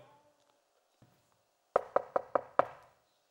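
Five firm knocks in a quick, evenly spaced series, rapping on the door of a house, fairly loud after a near-silent moment with one faint tap.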